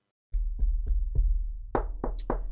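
A series of about seven dull knocks on a wooden table, loud, in an uneven rhythm, as everyone knocks on the table hoping for a negative coronavirus test. The later raps land harder and ring out a bit more. No one speaks.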